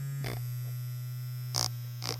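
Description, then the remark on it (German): A steady electric buzzing hum, like an electric toothbrush, drones without a break, interrupted by three short hissy bursts. “Ein bisschen eine elektrische Zahnbürste.”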